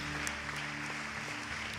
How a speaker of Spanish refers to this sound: Te pido, generación mía, que le des un fuerte aplauso al Señor. Un aplauso lleno de amor, lleno de corazón a Él.